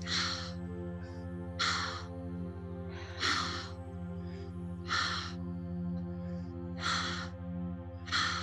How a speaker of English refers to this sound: And then you exhale. Close your eyes. as soon as you let it out, you're bringing it right back in. And I like to hear that exhale.